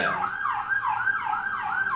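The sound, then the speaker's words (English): An emergency siren passes by outside, wailing with a fast, repeating rise-and-fall warble, fairly steady and moderately loud, heard alone with no talking over it. “uh, as, as the siren goes by.”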